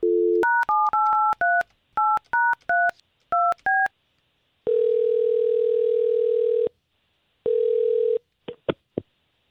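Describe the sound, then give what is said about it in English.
A radio morning show host dials a man's phone number: a rapid series of telephone keypad tones, followed by two long steady ringing tones with pauses between, then a few brief clicks as the call connects. “I'm going to try to call him next.”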